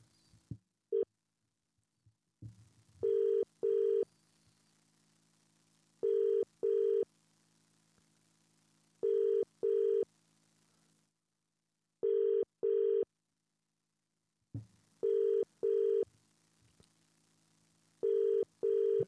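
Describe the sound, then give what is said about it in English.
An outgoing phone call to a referee, its ringing tone heard as six double-pulse rings spaced about three seconds apart, steady and clear with no one talking. “It's ringing.”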